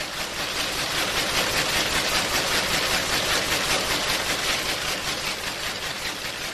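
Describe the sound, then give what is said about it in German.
Several historic cotton-weaving looms from around 1900 to 1910, among a row of eight similar looms in a production area, run at once, a loud, dense mechanical clatter with a fast, steady rhythmic beat that continues without pause. No one speaks. “Wir schauen uns jetzt mal den Produktionsbereich, also unsere sogenannte Achterreihe, acht ähnliche Webstühle der Zeit um 1900, 1910.”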